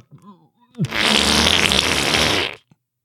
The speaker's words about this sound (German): furzt ins Mikrofon